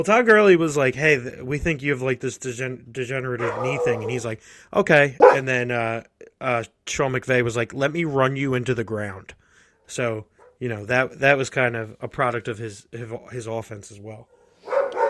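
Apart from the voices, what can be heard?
dogs barking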